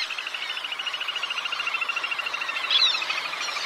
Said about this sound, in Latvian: Un tad, eh, man, piemēram, bija liels prieks, ka kāda cilvēka ieraksta no savas viensētas pie dīķīša to ierakstu, un es ierakstā dzirdu, ka tāds mazais dūkuris tur eh, dzied.